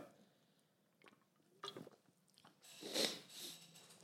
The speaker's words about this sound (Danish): Så nu tager jeg lige en slurk af min, øh, min drik her.